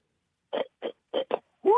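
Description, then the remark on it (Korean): A person imitates a pig squealing, repeating it on request, giving four short, choppy grunting bursts followed by a longer squeal that rises sharply in pitch and is cut off at the end. “죄송한데, 당나귀하고 마지막에 돼지 그, 자지러지기랑 차이가 좀, 돼지 자지러지기 한번 다시 한번 볼 수 있을까요, 돼지?”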